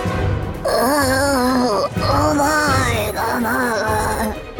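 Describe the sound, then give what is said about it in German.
A man groans in his sleep: long, drawn-out moans with wavering pitch, three sustained groaning phrases in a row, fairly loud, with no words spoken. “Auch heute konnte man ihn wieder im Schlaf stöhnen hören.”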